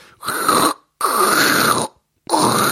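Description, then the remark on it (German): A voice imitates a loud crackling noise heard in the ear, like a loose contact or a broken cable, in three loud, raspy bursts that cut in and out abruptly, with short silent gaps between them. “Es war halt unanständig laut und ähm, mit Wackelkontakt. Wirklich so, als ob da ein, ein Kabelbruch ist und das wie, halt also, äh, zu, es fängt jetzt an und hört dann wieder auf”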